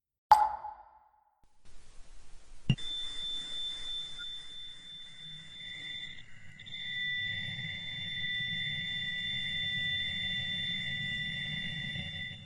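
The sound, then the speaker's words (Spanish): Sonified Wow! radio signal, a possible alien signal linked to the Big Ear telescope in 1977: a short tone, then a sharp click opens steady, eerie high-pitched electronic tones that hold throughout while a low rumbling drone swells underneath. No voices. “Hasta ahora, la única señal en la historia de la humanidad que ha sido detectada y que podría ser una señal alienígena fue la señal WOW, que estamos escuchando de fondo.”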